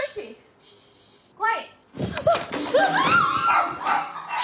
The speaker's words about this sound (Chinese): 家中狗狗狂吠警告，神经大条的主人还叫它安静，直到。